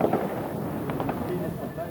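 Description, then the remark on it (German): New Year's Eve firecrackers on December 31 pop and crackle irregularly in the background, a few sharper bangs standing out over a steady wash of outdoor noise and faint murmuring voices. “Ähm, ihr hört im Hintergrund Geböller, das liegt daran, dass der 31.12.”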